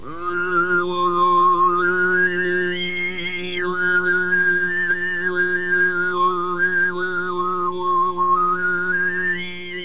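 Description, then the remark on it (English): A single singer's steady low droning voice holds one pitch while a bright, whistle-like overtone melody glides and flickers above it, in Mongolian throat-singing style, loud and continuous throughout with no other instruments. “It's called throat singing, and it's been happening in Mongolia for a very long time.”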